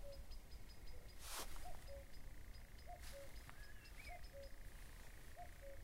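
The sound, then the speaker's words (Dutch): A faint, steady churring drones on from the distance, a nightjar's continuous mechanical trill, with short whistled notes repeating and a few soft rustling bursts in a quiet night setting near a fen. “Daar hoor ik de ratel, in de verte hoor je een ratel.”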